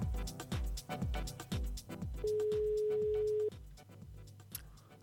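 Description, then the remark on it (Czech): A single steady telephone ringing tone, mid-pitched and about a second long, sounds during an outgoing call made on a Rádio B broadcast, over rhythmic background music with a thumping beat. “Zvoníme.”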